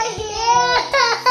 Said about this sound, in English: you can hear my kids in the background. They supposed to be taking a nap, but they playing Die Hard because they want to control. They don't want me to do this.